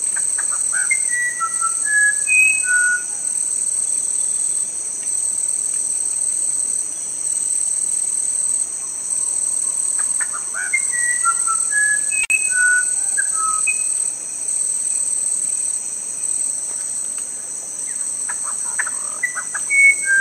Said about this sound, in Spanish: Escuchamos recién al Huirapurú, un pájaro de la cuenca amazónica. Dicen que su canto ha cautivado a muchísimos compositores